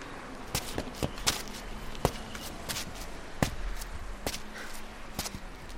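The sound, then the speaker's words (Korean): Footsteps of someone walking after finishing a 20 km roadwork run, turning away from a goshiwon instead of going in to shower. The steps go at a steady, unhurried pace, each a distinct tap, over a faint background hum with no voices. “그 시각 20km의 로드워크를 가뿐히 마친 권숙은 샤워를 위해 고시원으로 들어가려다 말고 발걸음을 돌려 걷는다.”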